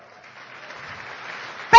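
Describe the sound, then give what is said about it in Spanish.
A seated audience in a hall claps, the applause building gradually from faint to a steady moderate patter, before a loud voice cuts in abruptly at the very end. “Dese un fuerte aplauso por eso.”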